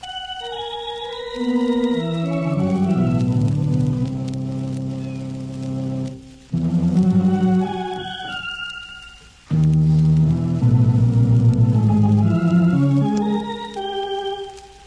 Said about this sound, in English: an authentic original organ solo by a seven week old kitten.